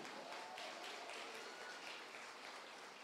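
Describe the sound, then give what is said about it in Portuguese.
An audience applauds together to celebrate God, a dense, steady wash of many hands clapping at once that holds an even level for about three seconds with no voices standing out. “E se tem alguém alegre aqui, dê um aplauso e celebre a Ele.”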